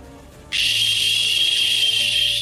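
A sparking fuse hisses loudly, starting abruptly and sizzling steadily for about two seconds with a thin high whistle running through the crackle, then cutting off.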